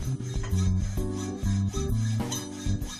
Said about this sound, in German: Mit allem vom Hammer bis zur Bohrmaschine. Hier zimmert er gerade für ein kaputtes Bett ein neues Bein.